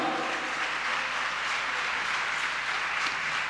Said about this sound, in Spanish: Dale un aplauso al Señor, a su nombre, gloria.